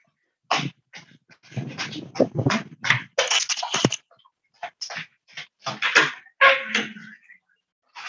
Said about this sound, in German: da klopft es gerade an. Kein Problem.